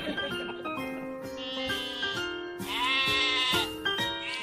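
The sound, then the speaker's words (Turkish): Several sheep bleat over one another in a steady, overlapping chorus, fairly loud, with quavering calls rising and falling throughout and no talking. “koyunları dışarı çıkaracağız.”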